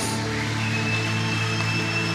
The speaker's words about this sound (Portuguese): se você crê nisso, aplauda bem forte Jesus.